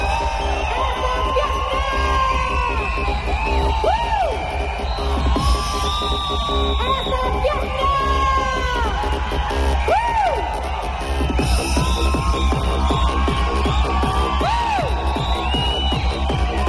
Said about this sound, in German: Dann können die Leute schreien. Die lassen dann richtig die Urschreie los und jubeln und es überflutet einen in dem Moment auch wirklich Gänsehaut.